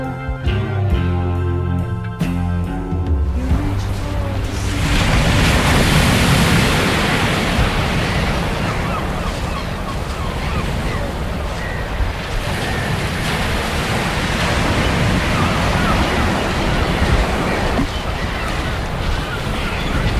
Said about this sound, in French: Trop de vent, trop de vagues surtout. La mer est montante, faut prendre des marques pour pas que le matos se fasse tremper.